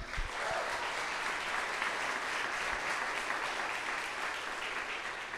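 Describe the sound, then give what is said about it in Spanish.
A church audience applauds for first-time visitors, a dense wash of many hands clapping at an even, sustained loudness for the full stretch without pause or talking over it. “Y si es la primera vez y si tú estás aquí por primera vez, este aplauso es para ti.”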